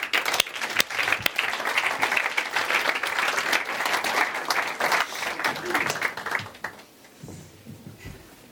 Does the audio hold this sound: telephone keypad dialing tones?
no